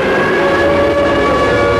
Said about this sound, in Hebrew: פחות מיממה אחר כך מהדהדת שוב בין שבילי הקיבוץ, שריקה. הפעם שריקה של צופרים, שמכריזה על פתיחת מלחמת יום הכיפורים.